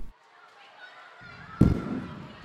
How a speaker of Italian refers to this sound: Non sono petardi, sono spari. Provengono dalla casa degli Spencer, esattamente di fronte alla Cleveland Elementary School.